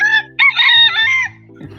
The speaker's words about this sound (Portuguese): Acho que o Fernando tem que prender as galinhas. Ô, Renato. Da onde que vem esse galo aí?